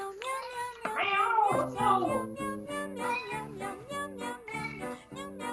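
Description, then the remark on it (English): A female cat meows insistently to be let out of the room, starting with a long, wavering, drawn-out cry, then a steady series of shorter, repeated meows. “Let me let this let her out. I forgot you were in here.”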